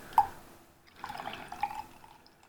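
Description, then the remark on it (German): Beer fizzes and foams softly in a glass during a beer tasting, with one sharp tick at the start and then a crackling patter of tiny bubbles as a little foam rises again, fading over a couple of seconds. “Sprudelt ein kleines bisschen da wieder was bisschen vom Schaum aufstehen.”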